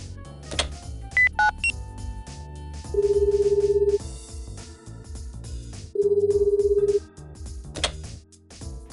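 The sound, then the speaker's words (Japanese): A few quick dialing tones at the start, then an outgoing call's ringback: two steady, buzzy one-second rings separated by a pause, clear against a quiet background. “そうだ、今日は特別にこっちから電話しちゃいましょう。”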